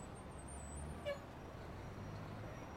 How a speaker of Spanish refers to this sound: Son las 6 de la tarde. Muchas personas comienzan a movilizarse. Hay cambio de turno en muchos empleos por lo cual el tráfico se pone un poco más pesado y en la calle la gente procura moverse con prisa.